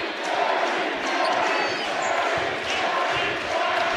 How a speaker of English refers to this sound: The crowd chants Barry.